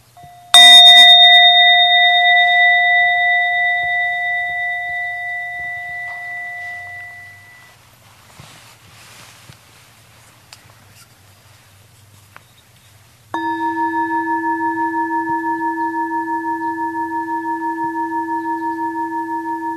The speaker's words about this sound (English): The sound of these bells.